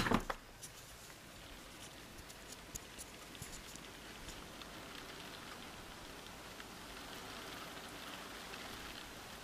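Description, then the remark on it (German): Steady rain patters outdoors, heard through an opening, a soft continuous hiss with scattered droplet ticks. Fairly quiet and even throughout, with a brief louder bump at the very start. “Ich weiß nicht, ob ihr das jetzt hören könnt, aber es regnet.”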